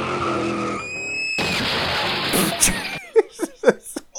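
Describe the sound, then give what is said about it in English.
Tires screech in a rising squeal, then a sudden loud burst of crunching, rushing noise like a car crash, followed by a few short voice sounds. “I oh my god, I think I crashed into someone.”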